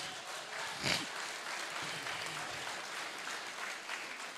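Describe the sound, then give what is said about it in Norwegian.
A crowd claps for Jesus in steady, sustained, dense applause that holds at an even level throughout, with one brief louder burst near the start and no voices over it. “Det kan vi klappe for til Jesus.”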